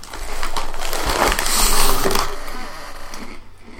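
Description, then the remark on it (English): Someone crunches through a mouthful of Chex Mix: dense, crackly chewing with rapid overlapping crunches, fairly loud and steady for about three seconds before tapering off, with no talking. “He's chewing Chex Mix.”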